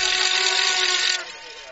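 A crowd at an American football game involving the Franken Knights blares plastic horns in a dense, shrill, sustained drone with steady buzzing tones, loud throughout, easing slightly after about a second.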